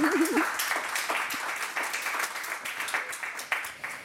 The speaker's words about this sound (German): Und Sie dürfen gerne klatschen.